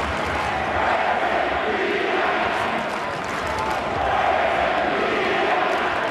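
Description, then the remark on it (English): A large arena crowd of Denver fans at a Nuggets vs 76ers basketball game chants "Where's Embiid at?" in unison, a loud, dense roar of many voices with a steady rhythmic swell that rises and falls without pause across the whole stretch. “I think you guys could probably hear that, but that is the Denver fans chanting, Where's Embiid at?”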